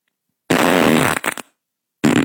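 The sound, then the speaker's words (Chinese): A loud, rasping fart from a young girl rumbles for most of a second and ends in a couple of short sputters, then after a brief silence a second burst starts up. “小女孩放屁怎么这个动静？”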